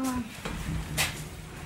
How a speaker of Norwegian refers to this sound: Nå går døra opp automatisk, så